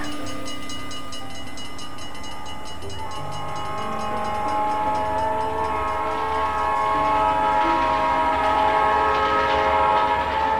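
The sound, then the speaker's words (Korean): A train bound for Iowa rumbles steadily along the rails while its horn sounds in sustained, layered tones, growing slightly louder toward the end. No one speaks. “그러던 어느 날 피터는 아이오와에서 만나자는 무디 목사의 연락을 받고 친구와 함께 아이오와로 가는 기차에 오릅니다.”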